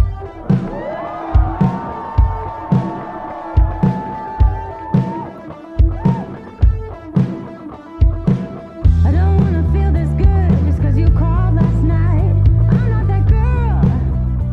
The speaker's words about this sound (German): Man hört nun, wie draußen die Musik losgeht.